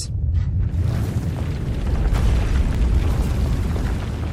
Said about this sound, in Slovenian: Zvoki potresa je tudi po skoraj dveh letih še vedno zbudijo neprijetne občutke.